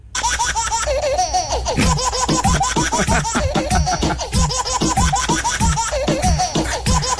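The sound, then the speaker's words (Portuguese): Baby giggles chopped and looped into a rhythmic remix, with repeated laugh bursts stacked over a steady low bass hum, loud and continuous from start to finish. “há pessoas que fazem coisas péssimas com, be com bebés que estão a rir e depois fazem Como assim? músicas.”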